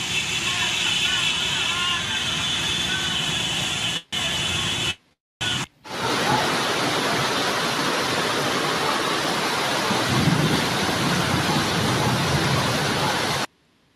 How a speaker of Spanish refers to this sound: Increíble es la lluvia, señores, en la ciudad de Guayaquil, en la costa ecuatoriana,